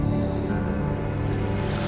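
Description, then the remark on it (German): Water churns and sloshes steadily as a swimmer dives under in a dark lake and pushes along just above the bottom, a dense, continuous rush with no voices. “Als das Wasser tief genug war, tauchte er unter und schob sich dicht über dem Grund in Richtung der beiden Unbekannten.”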